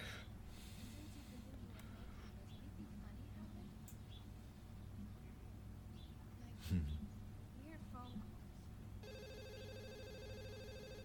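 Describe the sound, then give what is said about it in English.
A telephone starts ringing near the end, a steady electronic ring with a bright, even tone, following a stretch of low background murmur and a brief sharp snort-like sound. “that sounds just like the the ring from Scream”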